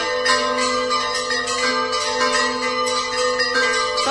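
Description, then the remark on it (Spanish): Church bells peal continuously from the sanctuary and brotherhood house of Nuestra Señora de la Cinta. They make a dense, ringing wash of overlapping strikes with sustained metallic tones, loud and filling the whole clip without any voices. “Apenas se nos escucha con el replicar de campanas desde el santuario, desde la casa de hermandad de Nuestra Señora de la Cinta.”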